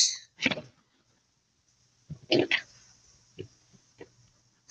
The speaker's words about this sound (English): My pencils almost fell over. Are you good? I'm good. I didn't know I had them that close on the edge.